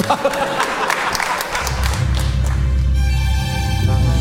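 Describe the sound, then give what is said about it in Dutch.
A short burst of crackly, scattered applause fills the opening seconds, then gives way to a steady, deep musical drone that continues to the end. “Oké, applaus.”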